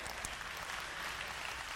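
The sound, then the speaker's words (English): An audience claps steadily during a sermon, a dense, even patter of many hands with no voices rising above it, sustained at a moderate level for the whole short stretch. “oh, if you want to clap, please do.”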